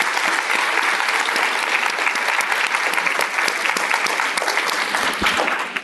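An audience applauds the panelists steadily for about six seconds, a dense, even patter of many hands clapping at a strong, constant loudness, with no voices standing out.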